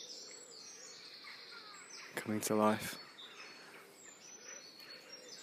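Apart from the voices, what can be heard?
birds singing outdoors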